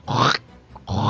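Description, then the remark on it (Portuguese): A voice imitates a cutting sound, like scissors, with two harsh, spluttering mouth bursts that come across more like spitting, loud, separated by a brief pause. “Nossa, isso é um barulho de cuspe.”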